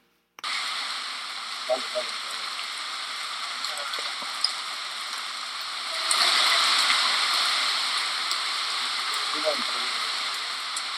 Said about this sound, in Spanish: Son las 3 y media de la mañana. Estamos en el clásico callejón del aguacate. Está cayendo una lluvia bastante peculiar.